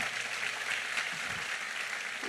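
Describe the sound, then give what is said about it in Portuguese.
An audience applauds a couple married 50 years or more, with steady, dense clapping that holds at an even level for a couple of seconds, a bright hiss-like texture with no voices standing out. “Pode aplaudir, irmão.”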